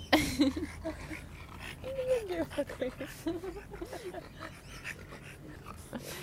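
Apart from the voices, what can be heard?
dog panting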